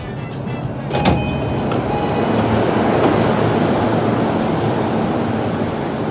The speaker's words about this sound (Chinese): 可是，这就是刚下地铁的声音。我端着设备，很失望，因为我并没有刻意的躲开说话的人群。我甚至渴望捕捉到一些有趣的声响，但依旧没有人说话，竟然还是我一个人自言自语。